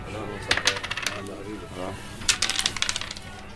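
Backgammon pieces click and clack against the board in two quick flurries of sharp, bright taps, with a short lull between them and a soft low murmur underneath, as a man plays backgammon beside the counter while drinking mate tea in a quiet venue in Erbil, Kurdistan Region of Iraq, on a weekday evening.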